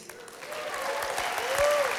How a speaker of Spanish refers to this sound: Un aplauso a las mujeres.